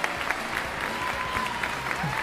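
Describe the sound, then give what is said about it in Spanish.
Steady, dense applause from a group, many hands clapping at once in a continuous crackling wash that holds an even loudness throughout, with no voices standing out. “Un aplauso, de fuerte eh, al patrón.”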